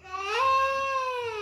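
A four-and-a-half-year-old child wails in one sustained, high-pitched crying note that rises and then slowly falls, loud, with no other voices.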